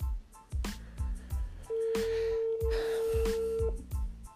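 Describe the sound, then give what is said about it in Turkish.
Telephone dialing tones as a dropped call is reconnected: a steady electronic beep holds for about two seconds over a rhythmic, thumping background beat, clear, with no one talking. “Tekrar seni bağlıyorum.”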